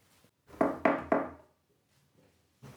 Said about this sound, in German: Ah nee, ey, äh, da klopft es. Hier kann man nicht mal in Ruhe fünf Minuten aufnehmen.